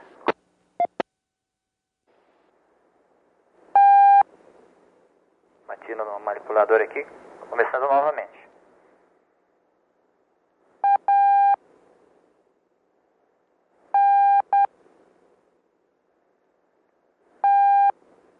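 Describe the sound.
Steady, clear electronic beep tones transmitting a coded six-letter word sound one at a time with long pauses between them, while a brief stretch of voice-like sound passes early on.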